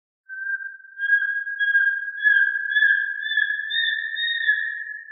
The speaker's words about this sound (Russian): А вот голос воробьиного сычка.